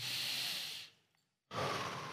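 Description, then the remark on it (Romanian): A deep, airy breath drawn in to demonstrate breathing, a brief pause of silence, then a forceful breath pushed out, loud and breathy with no voice. “Respirația îi are două componente. Inspirație”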